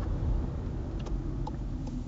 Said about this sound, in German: Sorry, ich muss wieder aus dem Auto aufnehmen.